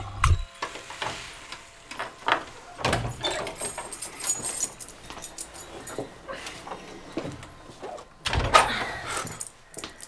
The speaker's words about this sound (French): Et tout naturellement, elle sort un trousseau de son sac et elle ouvre.